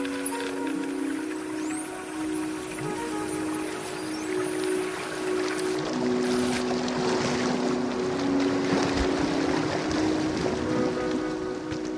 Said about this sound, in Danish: tilbage i havnen i Svendborg er vi så småt klar til afgang i Jesper Stis 25 fod lange båd